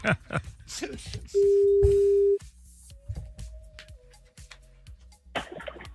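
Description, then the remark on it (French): A single steady telephone ringback tone sounds for about a second, loud and clear, as a live on-air call is placed to a contest winner, with faint voices and studio noise around it before and after. “Première sonnerie.”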